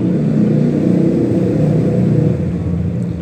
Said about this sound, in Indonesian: ya sorry karena di pinggir jalan jadi suaranya berisik